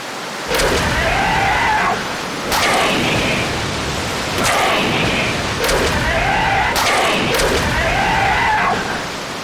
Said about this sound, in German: 300 Peitschenhiebe für das Meer! Sofort, mein Herr, sofort!